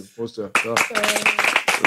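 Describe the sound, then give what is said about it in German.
A brief vocal sound gives way to a dense, steady patter of hand clapping lasting over a second, fairly loud, with a voice briefly heard over the applause. “Applaus dafür.”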